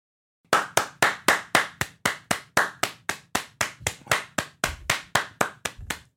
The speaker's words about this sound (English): Sorry, someone asked that we bring it back. What, clapping at the start? Yeah.